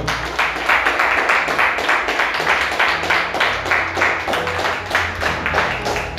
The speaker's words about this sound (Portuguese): Aleluia. Aplauda o Senhor.